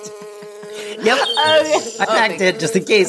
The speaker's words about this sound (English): Oh, it's such a lovely day. Yeah. Oh, listen to those birds chirp, and the bees are buzzing. Oh, oh one got too close to me.